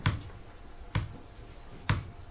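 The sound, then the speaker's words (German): Three dull knocks from pressing a switch button, evenly spaced about a second apart, each a short thud with a click on top, fairly quiet against a soft background hiss. “Jedes Mal, wenn Sie mich klopfen hören, dann drücke ich, auch wenn Sie es vielleicht, naja, oh, Sie sehen es am, am, Schalter.”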